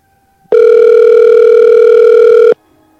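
A single loud, steady electronic phone ringing tone sounds for about two seconds as a phone call is placed, then cuts off abruptly, with no one talking.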